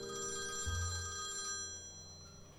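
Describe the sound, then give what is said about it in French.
A telephone rings steadily with a bright, buzzing bell tone, loud, filling the whole moment with no voices over it. “Le téléphone”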